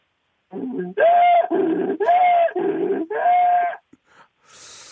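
A donkey brays loudly, a rhythmic series of harsh, wheezing hee-haw cycles lasting a few seconds, followed by a few faint snorts and a brief breathy noise.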